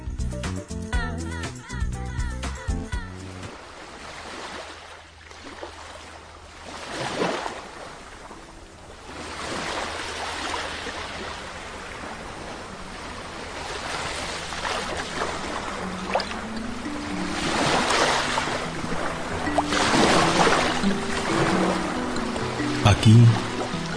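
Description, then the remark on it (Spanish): Sea waves wash onto a shore and recede in slow, rolling swells of hiss and rumble after a brief musical opening, with soft tones and a low hum beneath. “Sobre estas olas está el recuerdo de tantas lágrimas que han navegado a través de días y años en la soledad de una luna olvidada.”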